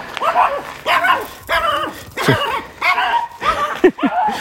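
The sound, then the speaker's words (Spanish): A hysterical dog barks excitedly at Rico, another dog, in a rapid, repeated series of sharp, high yelps and whiny barks, about six or seven in quick succession, loud. “Un perro histérico que ve, ha visto a Rico y...”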